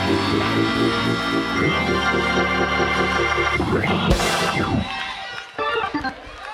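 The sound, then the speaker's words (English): An audience shouts and cheers loudly and continuously, a dense wall of voices blended with sustained instrumental music, easing slightly near the end. “Let me hear everybody who will adjust to get it. You don't have to scream.”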